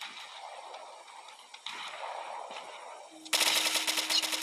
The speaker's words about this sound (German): Oh Gott, auf mich wird gesniped, okay. Sie haben einfach keinen Schuss getroffen.